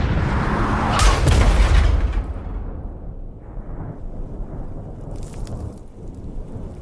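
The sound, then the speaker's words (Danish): A sudden, powerful explosion as a car carrying four soldiers hits a roadside bomb and rolls over and over on a gravel road, with a deep, rolling boom, then fades into a long rumbling wash of scattered debris and low noise. No one speaks. “Bilen rammer en vejsidebombe og ruller rundt og rundt på grusvejen, som de kører på.”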